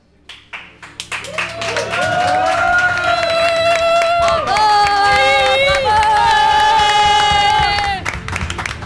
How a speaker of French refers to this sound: C'est après que nous allons applaudir. Les joies du direct. Et donc de lui réserver une standing, vous l'aurez rectifié, ovation.